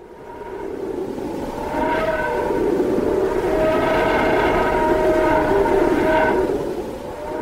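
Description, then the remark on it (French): An eerie, unsettling sonification of solar wind particles captured around the Sun by NASA's Parker Solar Probe in 2020: sustained whining tones with faint harmonics drift slightly in pitch over a steady rushing hiss, holding a constant, fairly loud level throughout without any voices. “C'est une adaptation sonore du vent solaire, ou plus exactement des particules captées autour du Soleil par la sonde de la NASA Parker Solar Probe en 2020.”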